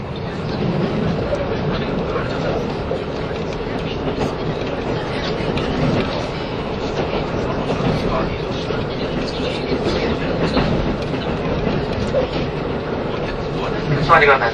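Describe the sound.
A KiHa 85 series diesel train, limited express Hida No. 1, rumbles steadily along the rails between Hida-Kanayama and Hida-Furukawa in Japan, passing Kanayama Station beside the Hida River, its engine drone and wheel noise continuous and fairly loud throughout, with muffled voices faintly audible beneath the running noise.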